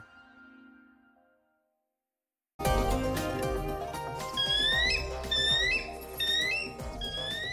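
A bald eagle's scream: a rapid series of high, piercing, chattering whistles repeating in bursts over a dense, loud background, after a brief quiet stretch at the start.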